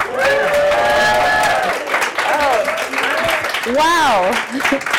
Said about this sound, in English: Listen to that live crowd. What energy, what excitement.